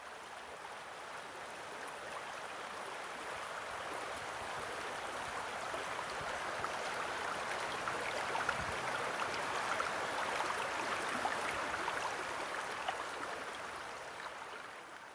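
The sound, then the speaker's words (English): River water rushes and gurgles beneath a bridge in a steady, unbroken wash of noise for the whole stretch, even in loudness, with no voices over it. “So here I am on the bridge now.”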